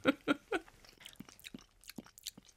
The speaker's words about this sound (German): Ich halte wieder mein Dezibel-Messgerät von deinem Mund. Ich muss hier ganz schön schnell kauen.